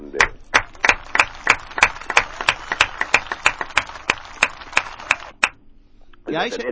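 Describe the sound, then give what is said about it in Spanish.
Steady, rhythmic clapping, roughly fifteen sharp claps at an even beat, stops abruptly; after a brief pause a voice starts speaking. “Un aplauso grande.”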